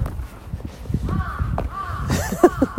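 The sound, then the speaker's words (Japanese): A crow caws a few times outdoors while someone walks home, harsh repeated calls rising over low street rumble from an approaching car and faint footsteps, with a quick cluster of sharper caws near the end. “カラスも鳴いてる。カラスが、アホアホと言っているよ。”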